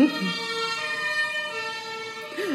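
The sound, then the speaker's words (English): A fire engine siren from a fire station directly below a home blares loudly and steadily, holding a bright, harmonic-rich tone with only slight pitch drift, while brief snatches of a voice come through at the start and end. “I'm living above a fire station.”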